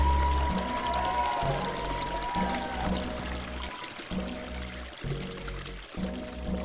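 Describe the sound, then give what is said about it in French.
Muscadet wine poured steadily in a few swigs into water, a continuous splashing gurgle with a low rhythmic glugging running through it for several seconds, fairly loud and with no voices. “on peut l'enivrer également en versant quelques rasades de muscadet dans l'eau”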